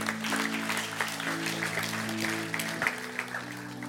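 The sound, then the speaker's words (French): An audience claps steadily with dense, overlapping applause, applauding the Lord, while sustained low organ or keyboard tones hold underneath throughout. “Quelqu'un peut dire Amen ce soir, applaudir le Seigneur.”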